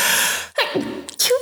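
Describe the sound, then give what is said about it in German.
A loud sneeze: a long breathy intake builds up, then sharp noisy bursts of air burst out, with no talking around it. “Oh, Achtung, ich muss niesen.”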